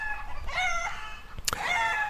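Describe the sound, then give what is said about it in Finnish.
A rooster crows loudly, its drawn-out harmonic call rising and falling, with hens clucking around it and a brief sharp click midway; the hens and rooster are from the home henhouse of field bishop Särkiö. “Tuossa taustalla ääntelevät kenttäpiispa Särkiön kotikanalan kanat ja kukko.”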